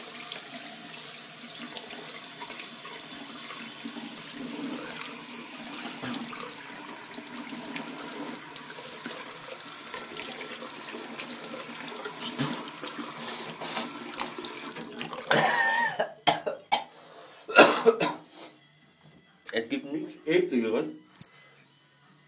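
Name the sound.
tap water running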